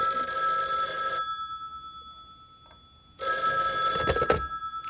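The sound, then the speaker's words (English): A telephone rings twice, a loud bright electronic trill lasting about a second, a pause of near silence, then another ring starting up again, clear with no talking. “It all started with a phone call.”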